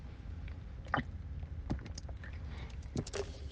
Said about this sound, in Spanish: Déjenme tomar un traguito de agua.